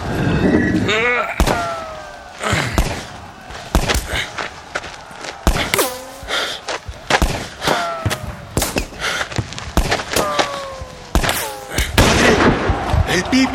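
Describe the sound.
Rapid, irregular gunshots and heavy booming blasts of bullets and bombs crack throughout a chaotic battle, loud, with shouting voices mixed in beneath the barrage.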